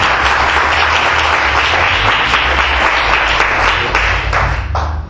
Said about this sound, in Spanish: Dale un aplauso al Señor si querés. Aleluya.